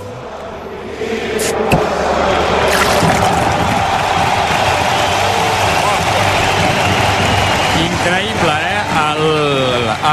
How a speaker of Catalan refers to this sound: la rematada final de l'himne de l'Espanyol a capella i una cervesa, una estrella d'am obrint-se. Eh? S'acaben de juntar dos dels millors sons de la vida.